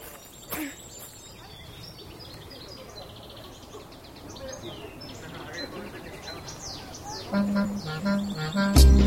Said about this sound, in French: Tu peux le reconnaître il y a quelqu'un qui t'explique quel est l'oiseau qui chante. Et surtout si tu les écoutes très bien.